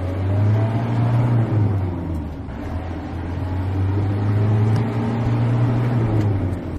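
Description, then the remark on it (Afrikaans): The Isuzu-based 2.8 turbo diesel engine of a 4-ton truck pulls hard, its deep steady drone climbing in pitch, dipping briefly midway, then rising again as it accelerates. No one speaks. “Die Isuzu gebaseerde 2.8 turbo diesel se versnelling is billik vir 'n 4 ton trok.”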